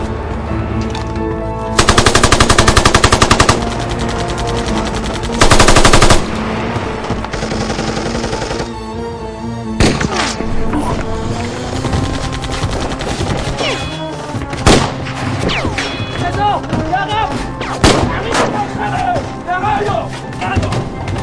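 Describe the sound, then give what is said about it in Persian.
Two loud, sustained bursts of rapid automatic gunfire, fired from inside, rattle out, followed by scattered sharper shots and clatter while people talk over the noise. “برام کمی گذاشت از داخل بهم تیر اندازی کرد”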